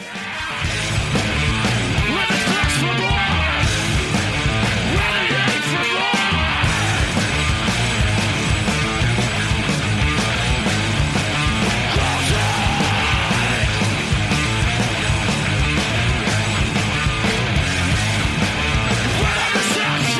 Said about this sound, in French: là, on va écouter un petit extrait du groupe … parce que c'est un groupe qui est très important